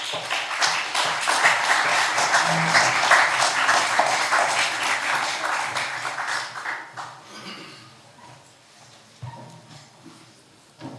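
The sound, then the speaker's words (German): An audience in a hall applauds after a lecture, a dense, steady clatter of many hands clapping that holds for several seconds, then thins out and fades to scattered claps and murmurs. “Applaus”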